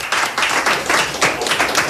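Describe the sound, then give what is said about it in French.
A crowd applauds the technical team steadily, a dense wash of many hands clapping at once, fairly loud and sustained throughout without any voices standing out. “On peut aussi les applaudir.”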